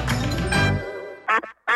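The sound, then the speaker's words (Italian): A loud, buzzy quack blares from a duck-shaped novelty sugar bowl that makes sounds, followed by a short pause and then a few quicker, nasal quacks in a choppy burst. “Ti hanno regalato una zuccheriera sonora a forma di anatra.”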